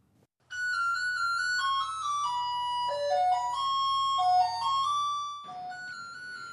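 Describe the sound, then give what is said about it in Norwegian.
An electronic school bell rings for class at a boarding school for boys aged 12-18 in an old mansion in Mogadishu, Somalia, run by a Turkish aid organisation; it plays a short stepped chime melody, loud and clear with a faint low hum beneath it, then ends abruptly before one more tone sounds. “Det ringer inn på Mogadishus nyestundervisningstilbud for gutter i 12-18-årsalderen.”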